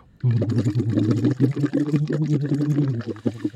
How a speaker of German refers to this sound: Ähm, und dann könnt ihr blubbern praktisch und dabei aber eben auch ähm, Noten halt erzeugen im Hals. Ich mache jetzt einfach mal nur das Blubbern. Na, klingt dann halt so.